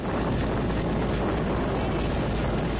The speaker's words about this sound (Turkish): Hindistan'da 31 Temmuz'dan itibaren aralıksız şekilde süren ve 8 kişinin canına mal olan fırtına denizde de kabus yaşattı. Dev dalgalara karşı mücadele veren tekne bir ara yan yattı. O sırada güvertede bulunan balıkçılardan üçü suya düştü.